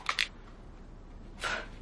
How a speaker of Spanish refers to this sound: Abre el mando de la tele.